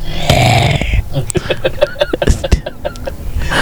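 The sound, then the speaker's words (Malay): A deep, guttural growling voice, the voice of Zarub, rasps loudly for about a second, then breaks into choppy, clicking, throaty snarls and grunts that sound menacing and demonic, without ordinary speech. “Aku tak pernah get used to suara Zarub Kalau saya dengar balik eh, Kadang-kadang kita dengar balik dah fokus ni Tengok kan Apa-apa kan Dengar balik Kadang bulu rumah naik juga eh.”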